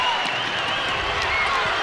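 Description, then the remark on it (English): A basketball crowd cheering and clapping as the Raiders cut the deficit to seven with 5:57 left in the half, a dense, steady roar of voices and applause that stays loud and unbroken for about two seconds. “Crowd getting behind them.”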